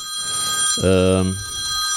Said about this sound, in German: Nee, das will ich jetzt ablehnen. So, zack, weg. So. Ich habe vergessen, das Telefon hier rauszunehmen.